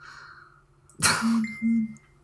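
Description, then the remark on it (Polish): A smartphone vibrates against a glass tabletop in two short, loud buzzing bursts. A sharp rattle comes first, then two humming pulses with a slight pause between them, and no one speaks. “A ponieważ blat mojego wspaniałego, wyjebistego stolika jest yy, szklany, mhm. to reaguje na wibracje smartfonu dużo bardziej”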